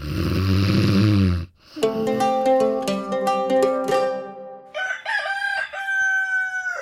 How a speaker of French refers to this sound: Afin de se faire pardonner, Godefroy a offert à Tristan de grands soldats de bois pour qu'il joue tranquillement pendant que lui, le papa fatigué, s'affale en ronflant dans le canapé.